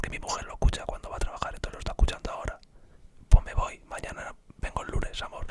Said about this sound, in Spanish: ¿cómo se llama cuando se habla bajito? Eh, la técnica esa de